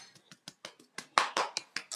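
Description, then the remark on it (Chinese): Brief applause: about a dozen sharp, crisp claps in a slightly uneven rhythm, soft at first, then louder and denser toward the end, with no voices. “如果你搜《三国志》，我们现在又重归第一，大家鼓掌。”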